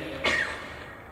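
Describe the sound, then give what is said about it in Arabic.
A single short sneeze, a sharp breathy burst that fades quickly, with a faint steady background hum and no talking. “يرحمك الله”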